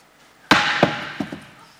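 A clay pot, standing for a son's life in a re-enacted village ceremony, smashes with one sharp, loud crash, followed by a few smaller clattering knocks as pieces land, then a fading ring.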